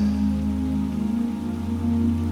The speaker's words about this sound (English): The temperature of the rain is just perfect. It's not too cold and not too warm. It feels just right. The rain smells like the most beautiful, refreshing scent.